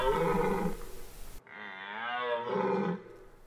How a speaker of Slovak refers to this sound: A toto je revanie jelenia. A nasledujúcich niekoľko minút chvíľu budem skákať hore-dole po bubli ako jelen skáče lesom, tak eh, si to trošku oživíme hlbokým revaním jelene.